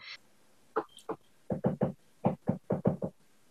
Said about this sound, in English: That's interesting. What is that? That noise? Is that a woodpecker? It's a woodpecker. yes, thought it was.